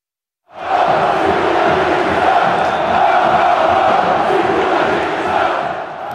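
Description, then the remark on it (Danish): A large crowd roars and shouts continuously, a dense, loud wall of agitated voices that swells in sudden bursts: football fans rioting in southern Brazil on a Saturday when International beat Gremio 1-0. “Ja, for det her, du hører nu, det er lyden af en værre omgang ballade, der udfoldede sig i øh, det sydlige Brasilien i lørdags, hvor International vandt 1-0 over Gremio.”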